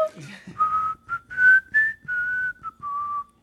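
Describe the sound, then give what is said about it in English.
Someone whistles a short tune, a series of clear sustained pure notes with brief gaps, moderately loud, with no talking. “can we hear you whistle?”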